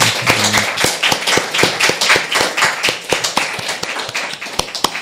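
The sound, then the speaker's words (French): An audience applauds a lecturer after his talk with steady, dense clapping that fills the whole stretch, sharp individual claps standing out over the crowd's continuous patter, and nobody speaks. “Je vous, invite à l'applaudir.”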